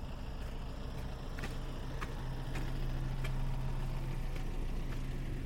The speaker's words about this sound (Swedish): Nu går vi förbi bröderna Ahlgrens marmor. Det är den bilen som eh, lät där nu.